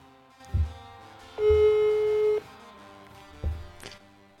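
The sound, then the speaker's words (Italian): A single steady ringback tone sounds for about a second on an outgoing phone call, clear and fairly loud, with a few soft low thumps before and after and no talking. “Eh, squilla! Squilla, squilla.”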